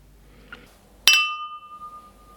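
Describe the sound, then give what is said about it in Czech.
Glass goblets clink together once in a toast, sharp, leaving a clear ringing tone that fades slowly; a faint light tap comes just before. No one speaks. “Poháry o sebe zazvonili a Karel se rozhovořil.”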